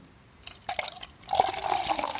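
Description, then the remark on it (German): A fizzy apple wine spritzer is poured into a glass, starting with a few splashy drips and swelling into a steady, bubbly stream that rises in pitch as the glass fills. “Es hört sich fast an wie Bier, aber es ist kein Bier.”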